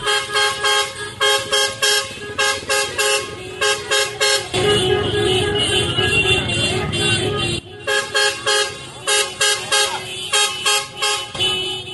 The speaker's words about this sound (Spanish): Allí los manifestantes, además de las barricadas, obligaban a los conductores a pitar, a hacer sonar sus cornetas a cambio de poder pasar hacia Bogotá. Escuchen precisamente lo ocurrido en este punto de Dinamarca.